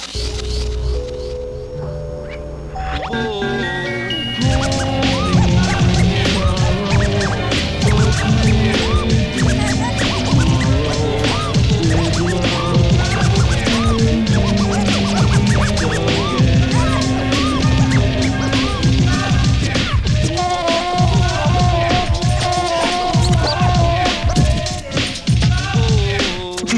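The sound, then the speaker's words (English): A DJ rewind: the record is dragged backwards in a quick, warbling pitch sweep for a few seconds, then a loud, steady beat with bass and melody kicks in and plays on. “could means rewind, rewind, gunshot means forward, rewind, so we rewind.”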